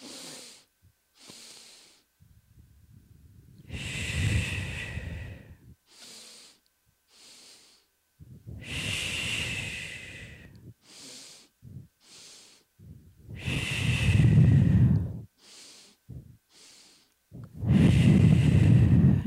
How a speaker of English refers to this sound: After breathing, exhale completely. Inhale, two parts.